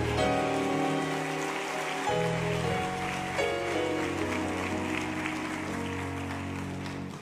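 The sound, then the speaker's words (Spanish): A large crowd at a religious service claps loudly and steadily for several seconds as applause for the Lord, a dense wash of applause layered over sustained keyboard or organ chords playing beneath it. “Denle un aplauso fuerte al Señor.”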